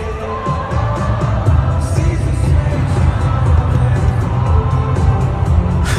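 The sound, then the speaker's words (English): A large concert crowd roars and shouts continuously for several seconds as a performer falls down on the stage, loud and dense, with scattered whoops rising out of the din and a low rumble underneath. “And let's hear the crowd make the noise as he falls down, actually.”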